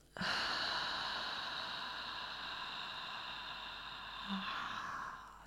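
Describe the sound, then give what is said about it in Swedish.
A long, steady, slow exhale through the mouth after a deep breath in through the nose, an airy breathy rush lasting about five seconds before fading out, with no talking. “Andas in genom näsan, fyll upp både bröstkorgen och magen med luft och andas ut långsamt genom munnen.”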